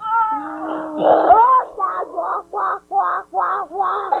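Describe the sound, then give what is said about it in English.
A 1984 home audio recording of a voice imitating a Sand Person cry from the first Star Wars movie: a warbling, wavering wail, then six rapid, harsh barking yelps in a steady rhythm, loud and alone with no speech. “In fact, uh, let's take a trip back to 1984 and listen to a really quick little audio uh, uh, recording of me doing an impersonation of a sand person.”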